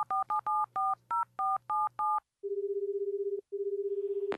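A rapid series of about nine touch-tone dialing beeps placing a phone call, followed by two long steady ringback tones with a brief gap between them, clear, with no one speaking.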